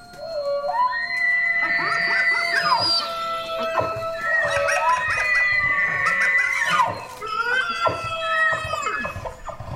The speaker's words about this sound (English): Um, and this is the Ozark Howler's call, supposedly. Supposedly. I, I want to put like huge, like, supposedly's on this one.